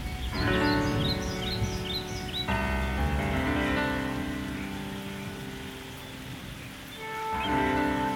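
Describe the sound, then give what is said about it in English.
Shorebirds call in a quick series of short, high chirps early on. They are layered over sustained piano and flute tones and a steady rain hiss, then fade as the music swells. “There are five sounds in this music piano, flute, shorebirds, thunder, and rain.”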